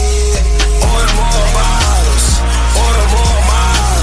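A loud hip-hop track plays with a booming bass line, punchy beats repeating roughly every half second, and warbling synth or vocal melodies sliding over the top, with no talking.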